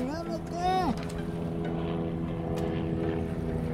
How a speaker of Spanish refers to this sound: ¿Qué, hace ese helicóptero aquí?